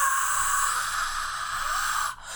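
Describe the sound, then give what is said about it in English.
A voice makes a hushed, breathy roar imitating a screaming crowd, a steady airy rush held for about two seconds before cutting off abruptly. “that's me screaming like doing doing like a like a like a like a crowd like.”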